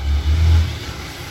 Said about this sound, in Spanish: Perdón por esa moto, creo que se escucha varias veces en el video.